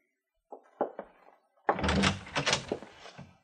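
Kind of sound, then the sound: household object, door opening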